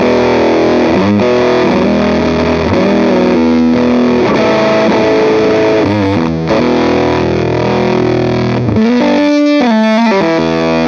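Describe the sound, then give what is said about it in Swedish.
A loud, heavily distorted electric guitar run through an effects pedal plays sustained, buzzing chords, ending with a choppy, stuttering burst of notes. No one speaks. “Nu rörde jag inte på pedalen ens. Alltså. Ja. Så här ska den låta.”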